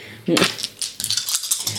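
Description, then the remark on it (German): Dice are rolled across a table, a burst of sharp clicks and rattles that settles into a few lighter ticks, landing on a 4. “So, also ich habe eine 4 gewürfelt, mit dem mhm.”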